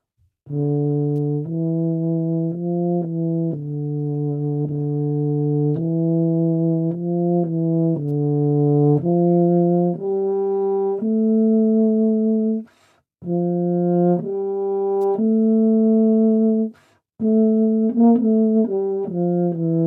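A tuba plays a slow melodic line of sustained, low, rich notes, moving in steps and pausing briefly twice before resuming, with no voices present.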